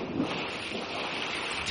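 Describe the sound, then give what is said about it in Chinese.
A continuous, loud rush of splashing, surging water as a foot stamps hard into a river and sends the water splashing high, steady and hissy with no single sharp stomp standing out, and no voices. “大脚公主的脚像船一样大，她用力往河中一踏，”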